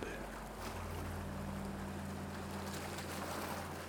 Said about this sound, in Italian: ma ora, a cominciare da questo momento e sempre di più, entrerai in uno stato di calma e serenità mentre ascolti il suono delle onde.